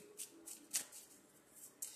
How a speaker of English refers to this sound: Let's grab our um I love shuffling these cards by the way. You know what I'm saying? Like those are my favorite ones. You know, I like them fresh after they've been used a couple times.